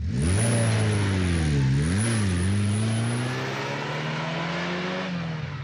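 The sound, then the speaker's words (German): A car engine accelerates loudly, its pitch climbing, dipping briefly as it shifts, then rising steadily again under a constant rush of road noise, as a band's car drives off from a meeting point in the evening. No one speaks. “Die Band hat mich, wie ausgemacht, abends am Treffpunkt abgeholt mit ihrem Auto. Ich gleich hinten reingestiegen und los ging's.”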